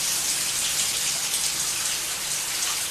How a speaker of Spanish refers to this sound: A ver. La escena sin música, ¿eh? se escucha la ducha.